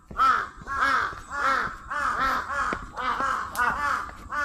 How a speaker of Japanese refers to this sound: そしてカラスとキツネが戦っております。